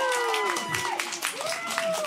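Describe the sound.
At the first TSF Chantilly Festival, broadcast live on TSF Jazz, a crowd applauds a musician arriving on set after leaving the stage. The clapping is dense and steady and fills the whole moment, while a few voices call out and cheer over the top.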